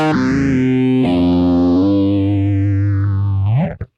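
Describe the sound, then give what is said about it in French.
Electric guitar played through a Bitron phaser pedal with the effect on: loud sustained notes and chords with a slow whooshing sweep rising and falling, shifting pitch a couple of times before a quick upward slide and abrupt stop. “Ok, donc c'est un phaser.”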